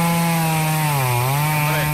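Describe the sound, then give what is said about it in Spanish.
A chainsaw engine runs steadily, a loud buzzing drone whose pitch dips briefly in the middle and then climbs back, with no voices over it. “Una motosierra y no es que María Lama se vaya a cortar las uñas de los pies.”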